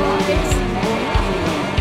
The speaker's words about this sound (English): are really driving those motorcycles